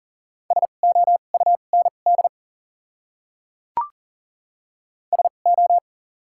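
A steady, clear beep keyed rapidly into Morse code at 40 words per minute with double character spacing, dots and dashes spelling out one of the 100 most common words, then a sharp click and a short second burst of code. No voices.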